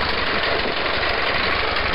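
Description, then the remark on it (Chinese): A snowmobile engine, from snowmobiles ridden by a group of older kids, drones steadily for two seconds, a loud, unbroken rumbling roar with a gritty, idling texture and no voices over it. “有一场比赛，本来可以赢的，结果被一群开着雪地摩托车的大孩子搅了局。”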